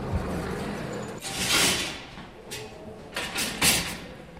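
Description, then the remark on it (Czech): Elevator doors in a theatre slide open with a broad, hissing whoosh as a wardrobe of costumes is taken aboard, followed by a few shorter rattling bursts and clunks as they settle, over a low steady hum with no talking. “Přijel výtah, s celým šatníkem nastoupíme otvírají.”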